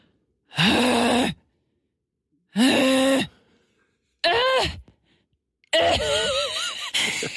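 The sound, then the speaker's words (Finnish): A voice imitates the strained moaning and groaning of someone weightlifting at the gym, four drawn-out vocal bursts with pauses between, the last one long and wavering, fairly loud with no other talk. “Se päästää seksiääniä.”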